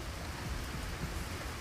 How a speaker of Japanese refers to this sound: 雨の音だね良き音だねいいねいいね雨の音はいいよねすごくリラックスする感じがするね